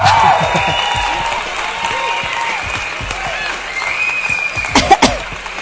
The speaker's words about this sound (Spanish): la banda del TEC de Monterrey y todos ellos, mis aplausos.